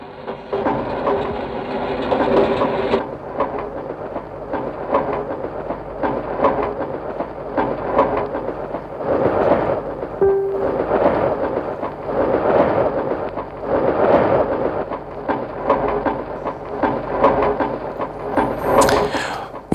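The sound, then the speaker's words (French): Rumbling train noise with rhythmic clattering bursts that swell and fade in a repeating pattern every couple of seconds: looped recordings of train sounds used in a piece of music; a brief whistle-like tone appears near the end. “Là, ce ne sont pas vraiment des boucles musicales, ce sont des boucles de sons de train.”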